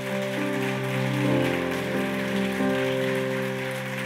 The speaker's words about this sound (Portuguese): Aplauda o Senhor Jesus por isso.